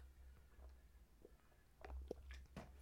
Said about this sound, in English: Let me take a sip.